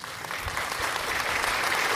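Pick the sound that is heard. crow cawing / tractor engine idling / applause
applause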